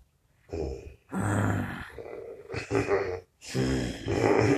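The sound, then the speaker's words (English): A person makes a series of loud, raspy growling noises with their voice, three or four rough bursts separated by short pauses, imitating an animal's growl. “yeah, yeah, I got growl for copyright.”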